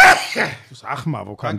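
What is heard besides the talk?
sneeze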